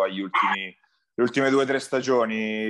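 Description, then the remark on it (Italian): A dog barks a couple of times, sharp and fairly loud, while a man keeps talking over and around the barks. “Scusate il cane.”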